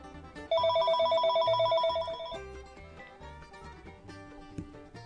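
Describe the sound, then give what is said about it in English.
A landline telephone rings with an incoming call from a wireless caller: one loud, trilling burst lasting about two seconds, followed by softer tonal sounds with no talking. “Call from wireless caller.”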